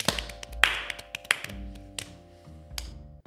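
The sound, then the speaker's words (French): Sparse, uneven clapping: a handful of sharp, crisp claps scattered irregularly over a few seconds, with no voices, over a low steady hum. “Avant toute chose, j'aimerais qu'on se donne une bonne main d'applaudissements pour ce beau travail accompli aujourd'hui.”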